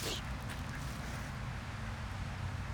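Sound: duck quacking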